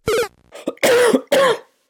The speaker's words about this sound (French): Pardon, j'ai un petit peu la crève aussi. C'est pas grave. Je serai guéri d'ici que le podcast sorte. du coup, je tousse aussi.